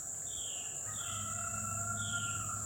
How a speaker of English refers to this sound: now this sound is there a rooster is, crowing in the morning? This is pretty.